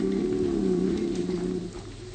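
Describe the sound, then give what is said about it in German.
A hungry person's stomach growls in a long, low gurgling rumble that holds steady for about two seconds, warbling slightly in pitch before easing off. No one speaks. “Ach, mein Magen knurrt, ich bin hungrig.”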